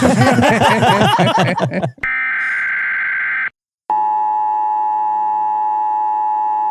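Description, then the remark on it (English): A loud, harsh electronic game show buzzer sounds twice to mark the start of a rapid-fire round: a rough, raspy blast of about a second and a half, a brief gap, then a longer steady tone, following a burst of speech and laughter. “That's the buzzer. That means it's time for a rapid fire spitening.”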